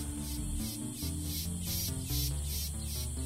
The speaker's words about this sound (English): The sounds of the chicharas, the sounds of the birds, uh, the sound of all the insects that call this home.